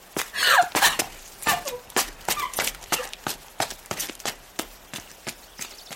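Quick, light footsteps patter in a steady rapid rhythm, each step a sharp tap, growing slightly fainter as the runner moves away. No one speaks.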